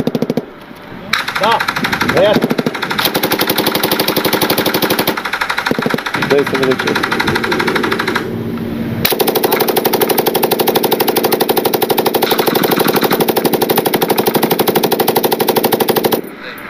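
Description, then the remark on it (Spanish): Loud volleys of coordinated gunfire from a line of soldiers crackle almost nonstop, dense rapid shots overlapping into a continuous roar, with a brief thinning before the firing surges again. “si se fijan, tienen disparo coordinado, o sea, hay una línea de soldados.”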